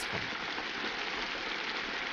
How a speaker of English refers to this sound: There's that rainy night.